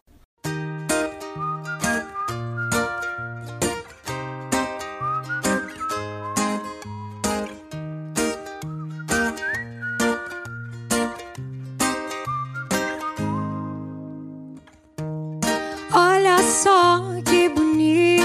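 A song plays, opening with a steady instrumental intro of bright, rhythmic repeated notes over a regular beat, then growing louder as a wavering melodic lead comes in near the end.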